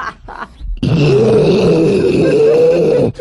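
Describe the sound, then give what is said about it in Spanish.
A loud, deep bear growl rumbles steadily for about two seconds after a short scuffling noise, then cuts off abruptly; no one speaks. “Eh, ¿dónde, está el oso? Ahí, por ahí.”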